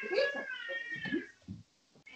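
A cat meows, a drawn-out, wavering cry followed by a shorter, softer mew before the sound trails off.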